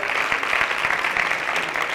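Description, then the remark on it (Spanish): A Christian community claps steadily for the people who have worked behind the scenes, a dense wash of overlapping handclaps with a few sharper individual claps standing out, sustained and fairly loud throughout without any talking. “Así que vamos a darnos un aplauso.”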